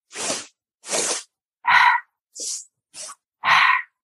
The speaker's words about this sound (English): So we're going to inhale two times and we're going to exhale one time.